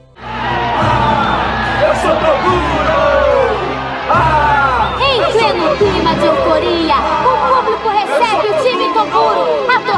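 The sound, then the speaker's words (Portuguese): A huge stadium crowd roars and cheers continuously as the team enters, a dense wall of many shouting voices with whoops rising above the din, loud and sustained throughout with a brief dip partway. “torcida inteira vibra com a entrada do time.”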